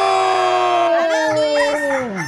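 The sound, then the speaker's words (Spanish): A rooster crows once, a loud, drawn-out cock-a-doodle-doo with a strained, wavering pitch that rises and then sags at the end, heard on its own during a trivia quiz on the radio program El Show de Piolín. “¡Pela Gallo!”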